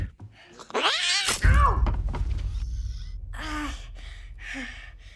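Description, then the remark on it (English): A cat lets out a loud, drawn-out yowl with a harsh hiss as it scratches someone in a scene from a Chucky film, then a heavy thump, followed by two shorter, strained cries over a low rumbling background. “The cat scratched me.”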